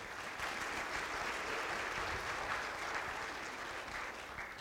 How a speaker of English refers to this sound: So give them a round of applause as well.